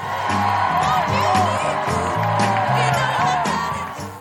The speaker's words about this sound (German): Ja, die Stimmung hier ist momentan wirklich super. Immer ziemlich was los, wenn ich ins Büro komme. Es wird gejubelt und geklatscht und gequiekt, was das Zeug hält. Die Leute sind geradezu außer sich.